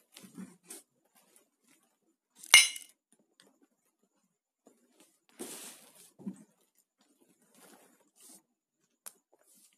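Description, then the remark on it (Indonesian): Glasses clink together once in a bright, ringing toast of cheers, fairly loud, followed by a few soft bumps and shuffles in otherwise quiet surroundings. “cheers dulu nih ya, ah cheers”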